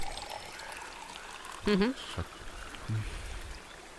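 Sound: water being poured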